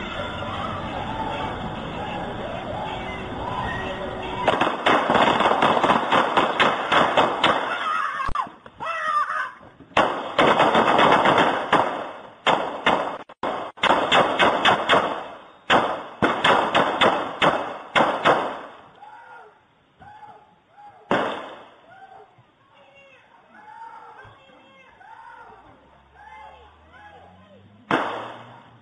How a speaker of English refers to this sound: I wonder if any of these rounds that you're about to see captured on this ring uh, doorbell footage were purchased by your Internal Revenue Service.